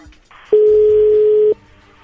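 A telephone ringback tone sounds once as a call is being placed: a steady, loud, mid-pitched hum lasting about a second over faint line hiss, with no one speaking.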